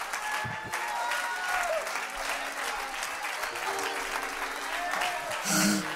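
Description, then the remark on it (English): A crowd claps steadily for several seconds in response to a call during a sermon to clap their hands one more time, a dense, continuous patter of many hands at an even loudness, with faint voices mixed in and a brief louder burst near the end. “If you receive that, clap your hands one more time.”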